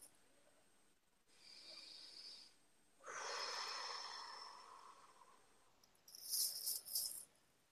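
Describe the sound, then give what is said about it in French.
Soft, slow breathing with no talking during a spoken session of affirmations about money: a hissy inhale, then a longer, fuller exhale that fades out, followed by a few brief, sharper airy puffs. “notre respiration.”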